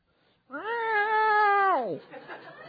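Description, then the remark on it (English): A person imitates a cat with one long, drawn-out meow, rising slightly, holding steady, then sliding down, loud, followed by a brief moment of quieter sound. “He gets in there with with the with the salt and scrubs around in there for a little while, and then you start sounding like my cat.”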